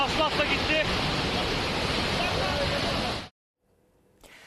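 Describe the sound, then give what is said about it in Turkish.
A loud, steady, dense roar of rushing floodwater from an overflowing stream that has blown out culverts and is washing away the road, then cuts off abruptly into near silence with a faint murmur returning at the end. “Dere taştı, menfezler uçtu, yol gidiyor tamamen.”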